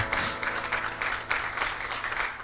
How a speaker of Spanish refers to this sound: Dale un aplauso a Cristo Jesús. Aleluya.